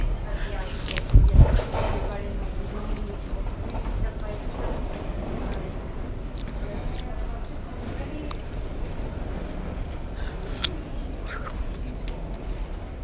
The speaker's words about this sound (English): 10 car San Francisco Millbrae train now approaching platform 2. For Antioch transfer at departure for SFO San Bruno.